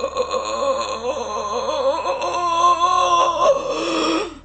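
A monstrous, rasping bellow from a tall shadowy creature, with a clicking, dragged-breath texture, swells steadily for about four seconds, loud, then cuts off abruptly. No one speaks.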